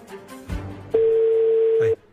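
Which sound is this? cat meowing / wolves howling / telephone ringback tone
telephone ringback tone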